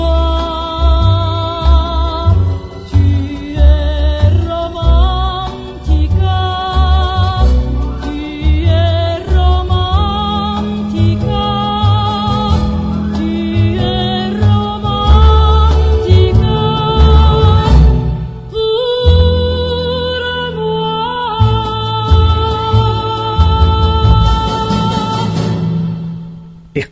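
A song plays loudly and steadily for the whole stretch, with full instrumental backing and a sustained melodic line over a pulsing low end, with no talking over it.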